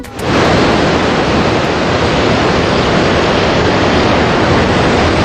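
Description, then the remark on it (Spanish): A loud, steady roar of sea surf washing against the shore at Pulpí, Almería, Spain, with a dense, continuous hiss and no distinct individual crashes. No voices are heard. “mira, con este sonido yo creo de mar lo haríamos desde el municipio de Pulpí para disfrutar de las primeras zonas de acampada libre cerca de las playas de los Cocederos y la Carolina, que son dos tesoros que hacen frontera entre Murcia y Almería.”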